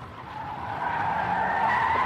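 Car tires screech in one sustained, high squeal as a car speeds around corners on a dark street; the squeal wavers slightly in pitch and grows a little louder over two seconds, with a low engine rumble underneath and no voices.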